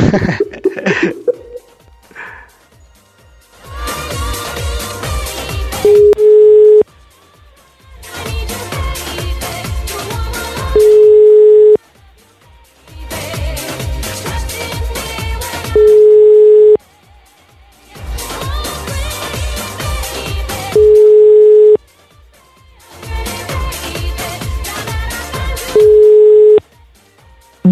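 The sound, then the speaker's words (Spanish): An outgoing phone call rings out in a steady repeating pattern: five cycles of a dense, buzzy burst ending in a short steady beep, each followed by a brief pause, with no one answering. “Si no me quiso contestar, vamos a intentar una llamada más, a ver si se dignan contestar el teléfono.”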